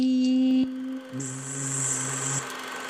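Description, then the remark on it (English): A steady, electronic-sounding buzz imitating a bee: a droning harmonic hum that breaks off, then returns lower with a thin high whine layered on top before cutting out. No one speaks. “it's trying to be a bee. It's a bee.”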